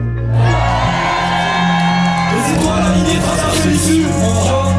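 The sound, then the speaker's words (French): A large concert crowd cheers and shouts loudly, with whoops and yells rising over a sustained roar of applause-like noise. “Encore une fois, fais du bruit pour … s'il vous plaît.”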